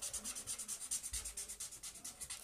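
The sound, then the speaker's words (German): A marker pen that is running dry scribbles quickly on paper, a steady run of short, dry, scratchy strokes in fast back-and-forth rhythm, fairly quiet, with no one talking. “Der Stift malt nicht mehr nehmen wir halt diesen anderen.”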